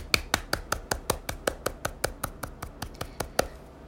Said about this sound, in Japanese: はい、あの自分で言って自分で拍手するっていうのがねちょっと虚しいんですけど